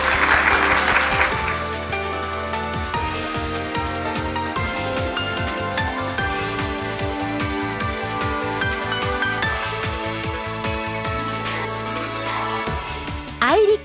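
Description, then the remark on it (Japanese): An audience claps at the close of an iRiC Corporation IR seminar for individual investors, the applause loudest at the very start, as upbeat background music with a steady beat plays throughout and carries on after the clapping fades. “今一度盛大な拍手でお送りくださいありがとうございました”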